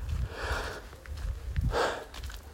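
A slow, deep breath drawn in and then let out, with two broad airy swells of breathy noise over a low rumble and no talking.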